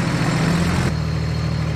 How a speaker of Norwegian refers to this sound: Nå kjører vi eh, båten her forbi Kjørte forbi ei eh, skogkledd øy, og så kommer vi bort til en ny skogkledd øy.